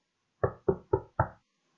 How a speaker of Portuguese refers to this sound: Então, como ninguém abria a porta, o senhor voltou a bater à porta.